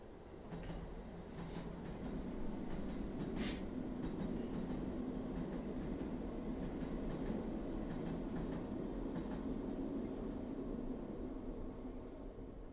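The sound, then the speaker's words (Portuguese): A train rumbles past close by, a steady loud roar of wheels on rails with occasional metallic clicks and clatter, sustained throughout with no talking. “não morem ao lado da linha do comboio”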